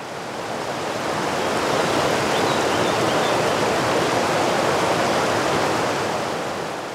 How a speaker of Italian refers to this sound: Il suono di un fiume in montagna mi ricorda tantissimo la mia infanzia.